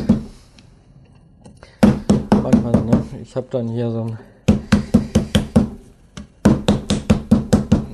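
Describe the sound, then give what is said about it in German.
Small, already-pounded thin schnitzel cutlets are briefly pounded a little flatter before breading, with rapid, heavy thuds in three bursts of roughly six to eight blows each, with a person briefly speaking in the pause and at the start. “kleine Schnitzel vorbereitet. Ich klopfe die ein klein bisschen mal eben an”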